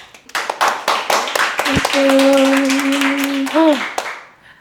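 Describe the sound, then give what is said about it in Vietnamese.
An audience on the show The Money Date breaks into dense, steady applause lasting a few seconds to welcome the first female guest of season 2, with a sustained whistle-like tone cutting through the middle before the clapping fades out. “Cho mình một tràng pháo tay được không ạ?”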